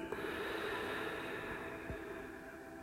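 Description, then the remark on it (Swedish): A long, deep breath, drawn in through the nose and let out through the mouth, a steady airy rush lasting a few seconds, with no one speaking. “Så du kan andas in genom näsan några gånger och släppa ut genom munnen.”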